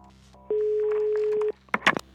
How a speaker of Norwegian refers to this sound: Jeg ringer en eh, matematiker.